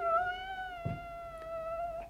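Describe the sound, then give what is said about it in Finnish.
A cat lets out one long, drawn-out meow, a steady high yowl that holds for about two seconds with a slight waver, heard alone with a couple of soft thumps underneath. “Kissa varmaankin mahtoi olla.”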